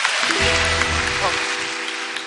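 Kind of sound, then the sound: crowd, audience applause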